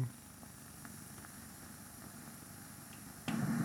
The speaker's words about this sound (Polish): No jak Państwo słyszą jest szum.